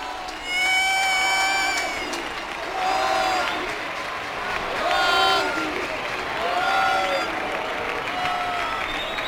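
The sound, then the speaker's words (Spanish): A large stadium crowd cheers and shouts in celebration outside the team's locker room as Joaquín comes out, recorded close to a Canal Sur Radio microphone; a steady roar swelling in repeated waves, with high, drawn-out voices and whoops rising above the din. “Tú nos ponías sonidos del interior de ese vestuario, pues el sonido se ha trasladado al exterior y así suena ahora desde la cercanía del micrófono de Canal Sur Radio.”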